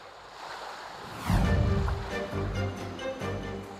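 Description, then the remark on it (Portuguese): Sea water sloshing and splashing against a rocking support boat for a group of divers, with a heavy surge of waves around the midpoint, continuous wash and low rumbling underneath, no voices. “continua a balançar no barco de apoio a este grupo de mergulhadores.”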